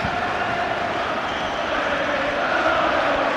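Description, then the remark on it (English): A huge stadium crowd sings loudly together as Celtic's Tom Rogic goes up to take his penalty, a dense, sustained roar of massed voices that stays steady and full for the whole stretch, with no individual speaker standing out. “again they sang so loud when Rogic was going up.”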